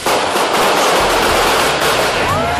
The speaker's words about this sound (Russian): Заканчивается фестиваль гигантским фейерверком, после чего все начинается заново